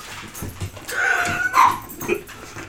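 A dog whimpers, letting out thin, high-pitched whines that rise and fall, with a few short yips near the end. No one speaks.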